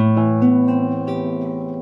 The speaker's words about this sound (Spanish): Está el más triste de todos, el menor 7-9.